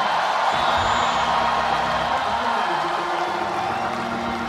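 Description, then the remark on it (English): A large audience screams and cheers at full volume, a dense, sustained roar of voices that holds steady for several seconds without pause. “Now, if you've got a whole lot more, than the three questions I asked you, I dare you to scream as loud as you can with both hands up.”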